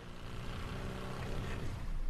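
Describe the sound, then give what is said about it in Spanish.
A steady, droning motor engine hums continuously with a buzzy low rumble and broad noisy wash, fairly loud, like a small boat motor running at constant speed, with no voices. “¿Eso es lancha neta? ¿No puede poner efecto lancha? O sea, es que parece este, una moto.”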